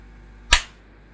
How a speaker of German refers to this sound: Ja, ich, ich, ich setze mir nur, warte mal, ich setze mir nur eben einen Clap, wenn ich das schneiden muss.